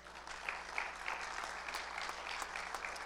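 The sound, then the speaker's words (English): An audience claps their hands in praise of the Lord, a dense, steady wash of applause from many people lasting a few seconds, with no voices rising above it. “Somebody give the Lord a hand clap of praise.”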